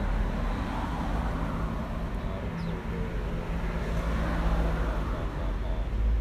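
Steady road traffic rumbles throughout, a continuous wash of passing cars with deep low-end hum, fairly loud, with no distinct pauses and no clear voices.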